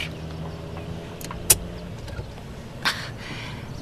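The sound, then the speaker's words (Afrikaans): A car's starter turns over weakly because of a failing battery, with a low, strained whirring that fades out after about two seconds, followed by a couple of sharp clicks, with no voices. “Weet jy wat fout? Die battery. Ek moes lankal 'n nuwe een gekoop het.”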